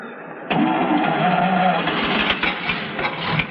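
A car engine cranks repeatedly with a rapid, grinding whir that never catches, continuing steadily for a few seconds with a loud, strained sound.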